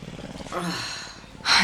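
lion growling

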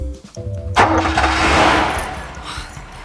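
car engine starting

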